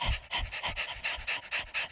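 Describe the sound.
As a breathing exercise, a person imitates a dog's panting with quick, rhythmic breathy huffs, about eight bursts in two seconds, fairly loud with no talking.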